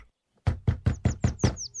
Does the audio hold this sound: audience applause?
no